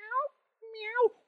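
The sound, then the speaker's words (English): A person imitates a cat's meow twice, two short, nasal vocal meows separated by a brief pause, the second slightly longer and rising before it falls. “Communication consisted of animal-like sounds. I'm just trying to imagine this. Like, meow, meow.”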